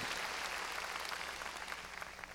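An audience at a church service claps loudly and steadily in praise of God, a dense, continuous wash of many hands with no pauses and no voices over it.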